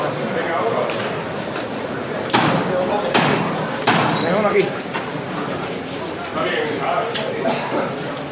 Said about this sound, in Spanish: Le faltarían eh, las velas más delanteras, las más próximas al martillo, que va a sonar en en breves instantes.